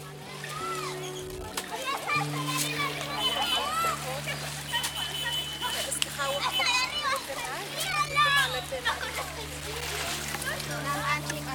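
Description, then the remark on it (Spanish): Children shout and chatter over a steady low hum, with occasional splashes of water, on a lake beach at 2 p.m. on a Saturday during a beach cleanup; boys sit in a dugout canoe a few metres from the shore. “Los niños están sentados en un cayuco a unos cuantos metros de la orilla.”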